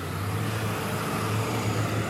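Steady, loud low-pitched engine rumble of trucks passing, two in a row, with broad road noise, holding at an even level throughout with no talking.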